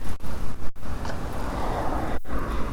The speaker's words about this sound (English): It's still blowing a gale though. just heading along the busy and noisy A354 back to the car park at Ferrybridge.